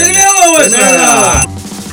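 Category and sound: signal or alarm, small hand bell ringing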